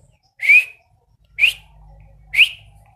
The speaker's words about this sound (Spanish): Si ven qué fácil, también lo puedo hacer silbando. Voy a hacer el triple de ese silbido.